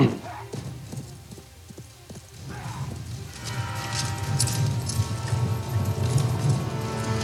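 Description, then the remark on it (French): Horse hooves clip-clop in a steady, sharp rhythm in a film scene, then blend into a louder, busier movie-style mix with a low rumble, the hoofbeats continuing underneath. “En tout cas, il y a des moments où les faux chevaux sont plus réalistes que d'autres dans ce film-là.”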